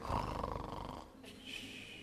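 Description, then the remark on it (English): A voice imitates the loud, rasping snore of Jesus asleep on a cushion in the stern of a boat, one long throaty rumble on the inhale followed by a softer, airy whistle on the exhale. “just snoring away.”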